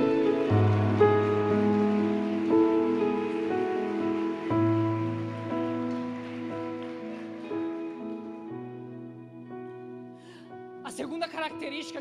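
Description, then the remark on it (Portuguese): A crowd at a religious sermon applauds the Lord steadily over sustained keyboard chords, the clapping gradually fading after several seconds while the held musical tones continue; a voice briefly enters at the end. “Você que acredita nisso, aplauda o Senhor bem forte.”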